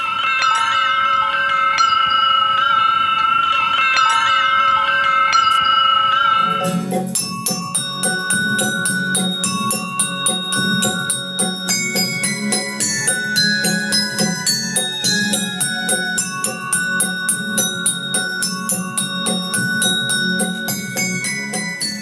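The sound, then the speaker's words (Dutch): A small boy from India plays glass bowls: they ring out, first as a sustained shimmering chord, then struck in quick, steady succession, layering many bright, clear pitched tones over a soft low hum. No one speaks. “Ehm, dat jongetje dat eh, op al die Indiaanse steelglas uh, eh, glazen eigenlijk eh, speelt.”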